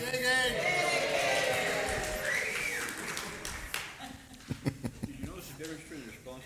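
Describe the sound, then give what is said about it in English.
An audience applauds in a dense wash of clapping that thins out into a few scattered, sharper claps, with a voice talking over it in a reverberant room. “yeah, I don't get applause.”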